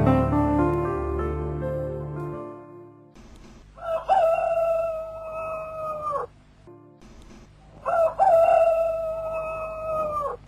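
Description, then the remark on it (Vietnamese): Two long, loud rooster crows ring out one after another, each a drawn-out cock-a-doodle-doo, following a brief low harmonic drone at the start, just before dawn in hamlets along a stretch of road leading to a market. No one speaks. “trời gần sáng trong mấy xóm ở dọc theo khúc lộ từ cầu mồng gà lên chợ cần duột gà gáy gian rân tiếc nhau kêu nông phu thức dậy mà đi ra ruộng”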